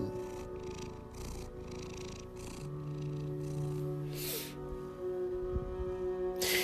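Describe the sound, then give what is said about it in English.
An orange, fluffy male cat purrs steadily, a low continuous rumbling with rhythmic breathy pulses, with faint soft hisses of breath standing out a few times. “He's a purring machine.”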